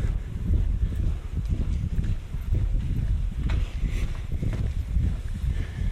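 Steady footsteps walk along the hard floor of an empty, deserted corridor, each step a dull thud in an even rhythm, with a low echoey hum behind them and no voices.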